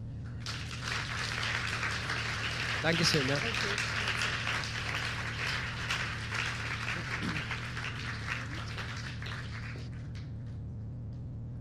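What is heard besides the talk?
audience applause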